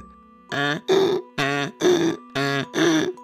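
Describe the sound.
A person mimics a donkey's bray: six loud, strained vocal bursts in three hee-haw pairs, rhythmic, with short gaps between them and no other sounds.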